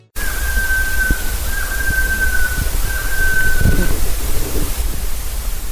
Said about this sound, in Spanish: Este es el sonido de una bequetzal, una especie de 30 centímetros de colores vistosos entre rojos y verdes que vive en los bosques de las tres cordilleras. Se observa solo o en pareja haciendo vuelos cortos y en los paisajes de caldas.